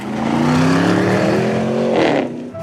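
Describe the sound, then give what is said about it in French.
A very powerful petrol car engine revs hard, its whine climbing steadily in pitch for about two seconds before a short burst of roar and a sudden drop, like a gear change. “Vous animez Top Gear, l'émission des fondus de voitures à moteur à essence, hein, qui font vroom vroom vroom.”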